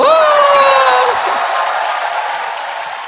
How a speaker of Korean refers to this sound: 패널 여러분들 모시겠습니다. 여러분 박수로 환영해 주시기 바랍니다. 어서 오십시오. 다시 한번 박수를 부탁드리겠습니다.